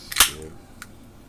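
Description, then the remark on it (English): A sharp hissing pop of a can of Aha blueberry pomegranate sparkling water being opened, a bright burst of fizz followed by a faint fizzing tail and a small click, with no talking. “Uh, that was me opening up a Aha blueberry pomegranate sparkling water.”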